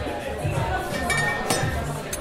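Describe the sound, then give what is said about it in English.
A few sharp glass clinks ring out, scattered irregularly as a Mandarin Fizz cocktail is prepared at an après-ski bar, over a steady backdrop of murmuring voices and background noise. “We start to make our uh, bestseller cocktail for the winter, which is Mandarin Fizz.”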